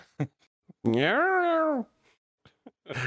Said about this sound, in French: Il a dit te laisse pas déconcentrer par le chat. Euh, il est là le chat.